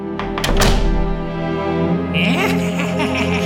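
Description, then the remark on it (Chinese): Three quick, solid knocks on a door land in the first second, loud and hollow, followed by a steady tonal background that continues after the knocking stops. In a children's story, the eldest pig knocks on the second pig's door to ask for help. “猪大哥只好跑到猪二哥那边敲门求救。”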